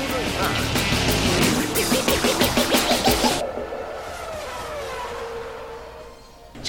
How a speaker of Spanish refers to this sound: El rugir de los motores llega a juego limpio con la Fórmula 1 y más.